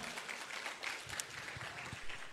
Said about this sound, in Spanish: ¿Qué tal se un aplauso al Señor? Amén.